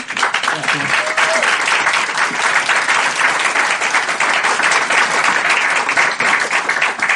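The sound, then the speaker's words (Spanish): A crowd at a training session applauds loudly and steadily, dense overlapping claps filling the whole stretch without pause, with a brief faint voice or whistle-like tone near the start. “Estuvo buenísimo y les he pedido otra vez un aplauso fuerte.”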